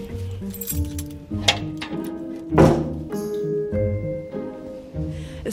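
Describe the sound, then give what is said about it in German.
A heavy door is unlocked and opened: keys jingle, metal clinks, and a few solid thunks and clacks ring out over a steady, low creaking drone. “Das Aussperren ist immer eine Zeremonie.”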